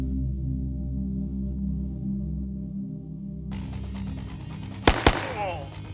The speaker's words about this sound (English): Fiona sent two more shots across the office of Viscount Security.